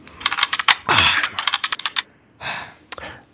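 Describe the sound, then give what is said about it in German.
Dice are rolled across a hard surface in a quick burst of sharp clicks and rattles, fairly loud, followed by two shorter tumbles. No one speaks. “Nee, ich würfel vor allem schön.”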